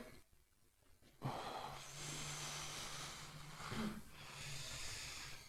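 After a brief quiet moment, a person grunts and groans with strain, long breathy, effortful exhalations with a low droning voice, close and fairly loud, with no words spoken.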